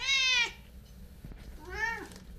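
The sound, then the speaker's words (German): Two clear meows from Wendelstein, a three-coloured cat living in a tower in Nördlingen, the first loud and drawn-out, the second a bit softer and rising then falling, with a quiet pause between them and faint low background rumble. “Die Katze Wendelstein ist eine Glückskatze, eine dreifarbige Katze.”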